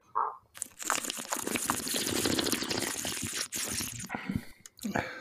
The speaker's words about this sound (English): So yeah, we're gonna, we're gonna take a sip and we're gonna go. We're gonna like slurp some, you know, but try to do it not gross and weird.